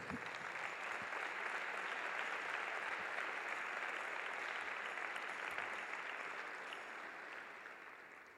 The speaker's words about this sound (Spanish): Dale un fuerte aplauso a Jesús.